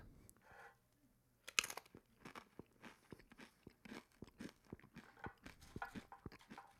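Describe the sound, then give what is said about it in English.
A sharp bite into a crunchy chip soaked in dip, followed by steady, rhythmic chewing for several seconds, each chomp moist and crackly, with no one talking. “I like to marinate my chip I marinate the chip so it crunches less.”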